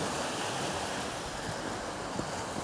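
A steady, continuous wash of sea surf at high tide at Térénez rolls on without pause as the day ends, a dense hiss of breaking water with a faint rumble of wind underneath and no voices.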